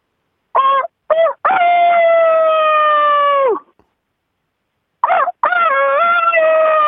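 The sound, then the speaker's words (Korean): A person imitates a rooster crowing over a phone call as a contestant in a rooster-crowing contest, loud: two short clipped bursts leading into a long, drawn-out wavering note, then a pause before a second crow begins the same way. “자, 닭소리 경연대회 수상자 맞습니까?”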